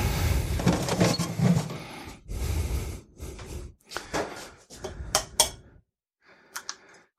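An egg is cracked and dropped into a container to make a quick mayonnaise: a run of sharp clacks and clattery knocks over several seconds, a brief pause, then a few final taps as it sinks to the bottom. No one speaks.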